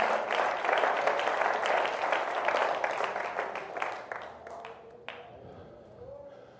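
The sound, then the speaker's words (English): An audience gives a hand clap of praise, a dense wash of many hands clapping that holds steady for several seconds, then thins out into scattered claps and fades away. “Can we give him a hand clap of praise right now?”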